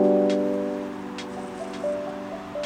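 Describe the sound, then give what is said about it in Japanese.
A steady wet hiss of a car's tires rolling over a road wet after the rain has stopped, with brief swishes, sampled beneath a mellow sustained musical chord in a lo-fi instrumental track; no one speaks. “あの嘘ですこれあのラップ歌が入ってなくてでトラックだけですで雨上がりのあの雨に濡れた道を車が走ってる音とかをサンプリングして”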